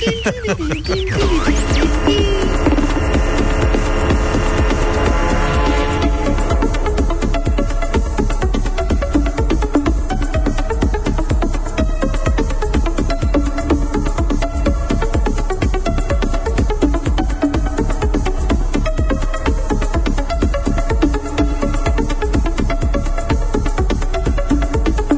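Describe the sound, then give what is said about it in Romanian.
A loud, continuous electronic dance track from 2005 with a steady thumping beat and layered synth tones, playing alone with no talking over it. “Eu uh, am uh, ridicat mânușa muzicii electronice și vin cu cea mai bună piesă din 2005 pe care am avut-o ringtone vreo 2 ani pe Nokia.”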